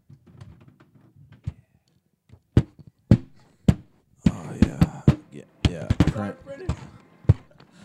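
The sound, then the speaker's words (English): A string of sharp, hard knocks and clunks as microphones hit each other tip to tip, first spaced apart then bunched into a fast clattering flurry, fairly loud, with faint murmuring voices underneath at the start. “That's the sound of some microphones hitting a”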